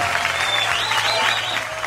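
A studio audience on the TV show Por el placer de vivir applauds steadily to welcome guest César Lozano Jr., a dense, even wash of many hands clapping at once that stays loud and unbroken for the whole two seconds.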